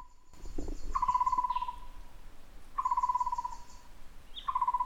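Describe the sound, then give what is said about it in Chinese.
A bird in the mountains at Yangmingshan calls three times at even intervals, each a drawn-out, steady mid-pitched whistle with a buzzy edge, over a constant soft hum of insects and no talking. “哇哦，那是什么鸟的叫声呢？”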